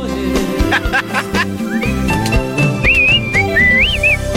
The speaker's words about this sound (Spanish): sabes qué hizo el chiflido, eras, ¿Nunca te supiste la historia de ese chiflido?